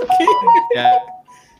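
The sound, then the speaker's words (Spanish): A quick run of bright electronic WhatsApp notification chime tones from a phone plays fairly loud for about a second, with voices overlapping, then fades into a faint trailing tone. “Sus notificaciones”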